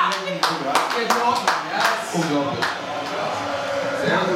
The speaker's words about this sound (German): Ihr habt es gerade gehört. Es gab einen einsamen ja, ja rufer das war der Union-Fan. Aber es hat auch einen Hertaner geklatscht.